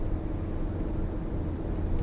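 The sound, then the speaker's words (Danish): A steady, heavy rumble of motorway traffic fills the whole stretch, deep and loud like large trucks rolling past, with a slight surge in the final moment. No voices. Trucks overtake on a motorway toward Odense in the early-morning darkness. “Nu bliver jeg overhældet os lastbiler igen!”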